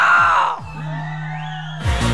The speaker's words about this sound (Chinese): 今天晚上双手双手举起来，拍拍你的手，好。尖叫来点好吗？